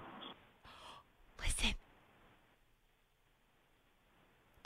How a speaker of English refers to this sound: we just get a snore? I think we did. Uh huh. You fell asleep Ow. holding the phone.